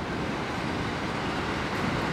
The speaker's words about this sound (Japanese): ちょっと電車が通りますすいません